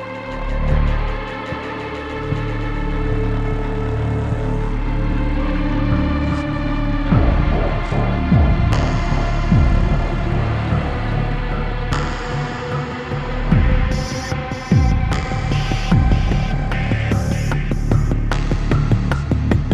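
An electronic synth track with droning, buzzy sustained chords, joined midway by pulsing percussive hits and crisp high-end bursts, playing loud and full without any voices.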